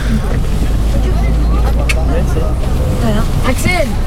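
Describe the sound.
A steady, loud low engine rumble from a moving bus drones throughout, with several voices talking and calling out over it.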